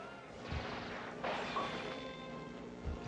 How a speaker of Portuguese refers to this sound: Um tiro, né? Pô. É, Street Fighter de tiro.